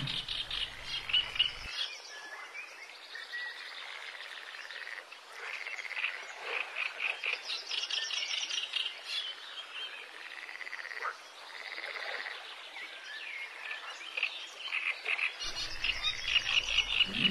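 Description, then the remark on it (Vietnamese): A dense chorus of African bullfrogs croaking near a pond after heavy rain, out of their burrows to breed, many overlapping calls pulsing continuously, with a faint layer of insect chirping underneath and no voices. “Ngay sau cơn mưa lớn, những con ếch yêu tinh vừa ở trong hang cả mùa khô đã nhảy ra gần ao để sinh sản.”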